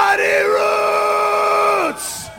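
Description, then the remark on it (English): A loud shouted "Roots! Roots!" station drop for the Muddy Roots festival: one voice yells a drawn-out call, held steady for about two seconds before its pitch falls away, ending in a short burst of hiss. “And uh, just in case you forgot, when you hear this. Roots! Roots!”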